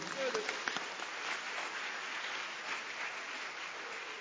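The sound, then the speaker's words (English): An audience claps their hands for the Lord as a clap offering, in sustained, dense applause, a steady crackling wash of many overlapping claps with faint voices mixed in underneath. “Oh, give the Lord a wonderful clap offering.”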